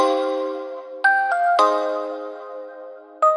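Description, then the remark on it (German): A melodic electronic doorbell chimes through a short sequence of bright, ringing tones, each note sustaining and overlapping the next, then a final tone sounds near the end. No one speaks. “Oh, jetzt klingelt's hier.”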